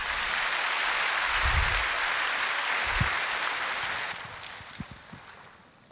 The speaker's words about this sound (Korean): 우리 다 같이 박수로 맞으시겠습니다.